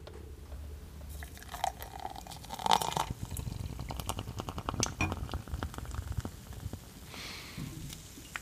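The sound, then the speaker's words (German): Weird Weather beer poured into a glass, heard close-up: a low, steady glugging stream with a brief clink, then dense, crackling fizz of foam and bubbles popping for several seconds. No one speaks. “muss ich aber noch mal einen großen Schluck vom leckeren Weird Weather äh, trinken und vorher werde ich jetzt als Abschluss zu diesem wunderbaren Thema euch jetzt nochmal ASMR-mäßig das Einschütten von diesem Bier ganz nah aufs Ohr geben.”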